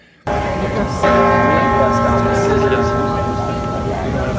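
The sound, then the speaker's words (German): The original Liberty Bell, the famous bell of freedom or independence, is struck once and rings on loudly, its deep resonant hum sustaining and slowly fading over a steady background of murmuring voices and ambient noise. “Das ist die berühmte Glocke der Freiheit sozusagen oder der Unabhängigkeit”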